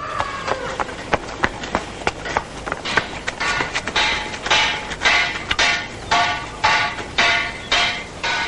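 A person runs out of a stable to the main house: quick, steady footsteps across a hard surface, each footfall a sharp tap, then heavier, scuffing strides with rustling toward the end. Fairly loud, with no talking.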